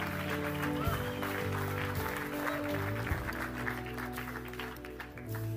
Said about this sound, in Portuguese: Será que podemos dar um brado de júbilo, um aplauso ao nosso Deus?